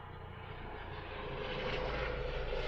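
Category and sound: vehicle, helicopter flying overhead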